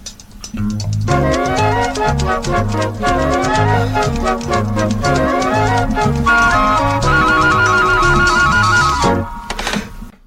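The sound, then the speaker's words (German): Upbeat 1980s East German typewriter advertising jingle with a bouncy synth bassline, bright keyboard melody and a steady, clicking percussive beat, loud and continuous for about ten seconds before cutting off, with no voices. “Äh, na, das ist eine, das ist eine Schreibmaschinenwerbung aus der DDR.”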